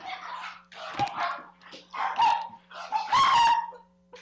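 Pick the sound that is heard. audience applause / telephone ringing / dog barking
dog barking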